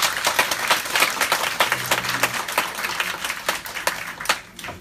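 A seminar audience applauds steadily to welcome the day's speaker at the start of a course, many hands clapping in a dense, crackling wash with a few sharper individual claps standing out, before the sound thins and tapers off near the end.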